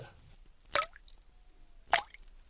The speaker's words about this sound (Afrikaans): Dit reën al heeldag hier by ons. En daar kom water in. Daar's twee klein gaatjies in die plafon en die druppels val so.